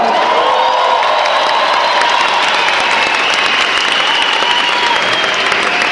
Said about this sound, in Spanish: aquí les pido que le den un fuerte aplauso, por favor.